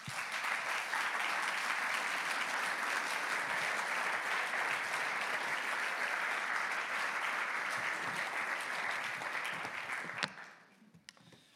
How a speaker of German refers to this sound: Und ich danke euch allen anderen Eltern, die jeden Tag Zeit, Geduld in eure Kinder investieren. Komm, wir geben euch Eltern mal Applaus. Danke vielmals.